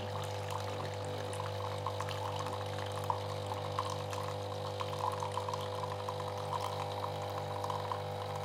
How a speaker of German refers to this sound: Essen am Morgen der Kaffee. Ohne den geht gar nichts. Ohne den laufe ich gar nicht. So. Und der Kaffee läuft. Ja, genau so muss er laufen.